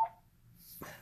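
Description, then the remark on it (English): A faint, brief electronic alert from the speaker's phone: a short tone at the start, then a soft, higher chime near the end, with no one speaking. “sorry about my phone.”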